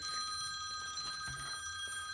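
A telephone rings with a steady, continuous electronic trill that holds for about two seconds as a listener's call comes in, heard alone at a modest volume with no one talking.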